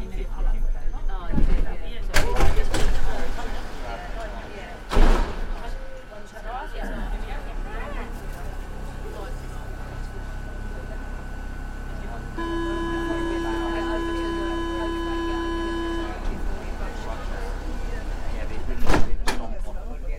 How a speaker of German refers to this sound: Rechts und links Häuserwände. Ansonsten Autos, Geschäfte, Schriften, Balustraden.